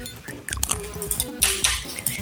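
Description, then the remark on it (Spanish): A microwave oven running with something inside, not popcorn, with irregular crackling and soft popping bursts scattered over a low steady hum, moderately loud, and no voices. “Acá preguntan que si pusieron palomitas en el microondas. No, pero sí puse algo en el micro, perdón.”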